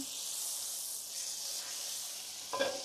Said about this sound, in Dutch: Nou, ongeveer 20, 25 gram roomboter. Ik gebruik altijd grasboter. Dus grasgevoede koeien. En dan laat ik die boter eventjes ehm, ook smelten in de pan